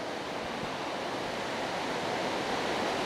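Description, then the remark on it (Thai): Heavy rain pours down in a dense, steady roar of hiss and patter, loud and unbroken throughout, with no voices or other sounds rising above it. “ต้องขออภัยคนที่ฟังอยู่ทางบ้านด้วยเพราะว่าวันนี้ฝนตกนะเสียงดังมาก เสียงอาจจะไม่ชัด เนี่ยมีคนทักมาว่าเสียงไม่ค่อยชัด”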